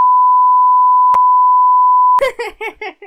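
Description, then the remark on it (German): A steady, mid-pitched censor beep covering a spoken email address drones for about two seconds, broken by a brief click partway through, then cuts off as bursts of laughter follow. “Piept das? Ja, das piep ich auf jeden Fall.”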